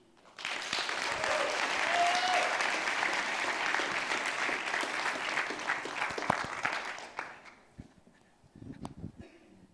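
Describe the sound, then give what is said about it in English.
A large crowd at a church service bursts into loud, sustained applause with a brief whoop of cheering for a guest speaker, holding steady for several seconds before thinning out into a few scattered claps. “So listen, would you help make some noise for my friend”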